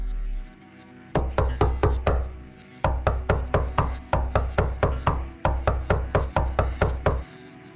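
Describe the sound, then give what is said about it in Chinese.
A group of people knock rapidly and forcefully on a wooden basement door after gunfire has stopped, in several hurried bursts of five to seven sharp raps each, loud and insistent, with short pauses between bursts and no voices. “刚才的孩子哭，女人哭，现在声音也已经没有了，就是一帮人在那儿乱敲门。”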